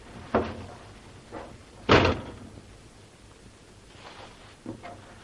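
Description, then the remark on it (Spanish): A car's passenger door shuts with a heavy, solid thump as someone opens it, sits in the passenger seat and closes it again, preceded by a sharper click and a softer knock, then a quiet stretch and a couple of faint light knocks. No one speaks. “Abre la puerta, se sienta en el asiento del copiloto y vuelve a cerrar.”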